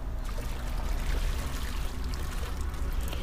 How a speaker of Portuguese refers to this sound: aparece uma linda cachoeira formando um lago à sua frente. E você vai caminhando em direção à queda das águas cristalinas, água crística.